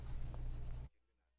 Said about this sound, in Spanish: Esto no es el rotor de un helicóptero, sino un colibrí en pleno vuelo.